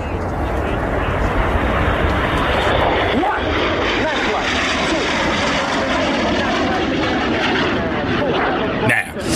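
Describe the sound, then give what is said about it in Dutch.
A loud, sustained roar of jets of the Tricolori aerobatic team flying past, a solo pilot coming for the first figure, fills the whole stretch, with indistinct voices faintly audible beneath the engine noise. “Nou ja, ehm, vliegtuigen. Ja, zeker. Het zijn de Tricolori.”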